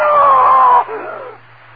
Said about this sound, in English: Yes. I screamed. I screamed so loudly there was blood in my throat.